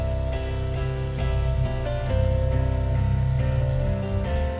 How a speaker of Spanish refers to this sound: ¿Alguien más? Dios les bendiga. Allá, por allá, Dios les bendiga. Vamos, denle un fuerte aplauso a ellos.